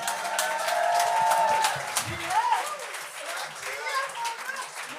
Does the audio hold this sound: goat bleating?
no